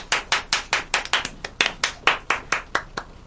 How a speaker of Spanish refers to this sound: Fuerte el aplauso